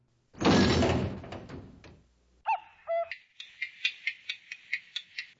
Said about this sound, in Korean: 문 잠궈. 유머식이 못 들어오게.